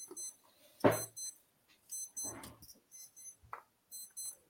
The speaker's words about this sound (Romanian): Hai că îmi sună alarma aici.